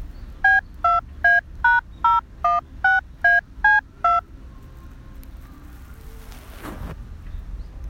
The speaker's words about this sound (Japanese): さて、まあ、何の、何のトーンコネクトの音声を流すかと言いますと、こちらでございます。